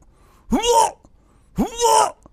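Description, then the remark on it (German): A person vocally imitates a cat retching before vomiting: two loud, strained, gagging heaves in quick succession, each rising and breaking into a rough, throaty burst with airy noise. “und dann guckst du im Flur und dann siehst du, wie die Katze sich rückwärts bewegt und sie dabei wirbt. Und dann kotzt die einfach mitten im Flur, dreht sich um, guckt dich an und geht einfach weg.”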